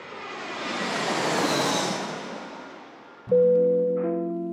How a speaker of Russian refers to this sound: Дамы и господа, пристегните ремни безопасности. Наш самолет готовится к посадке в городе Сургуте